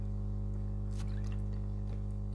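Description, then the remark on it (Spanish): A few soft, wet slurping and swallowing noises from someone drinking a sip of water because their throat is drying out, over a steady low electrical hum, with no talking. “A ver, voy a tomar agua porque se me está secando la, la garganta.”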